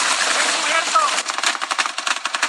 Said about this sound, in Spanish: En la zona huacatera de Michoacán, cerca de Tinguindín, se reportó un enfrentamiento con armas de muy grueso calibre, como lo permite apreciar el sonido de las detonaciones.